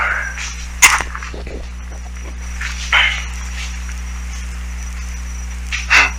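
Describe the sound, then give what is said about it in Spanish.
A cow femur bone tossed onto the ground lands with a sharp, hard crack, followed by a couple of fainter knocks spaced a few seconds apart over a steady low background hum. “Eh, se escucha que lo tira.”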